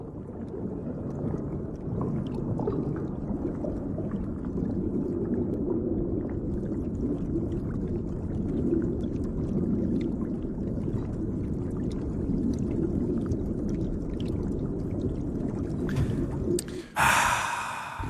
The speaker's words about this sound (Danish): Skal vi lige, inden vi kommer videre, have jo. to minutter, eller ikke to minutter, lige have et lille stykke tid under vandet?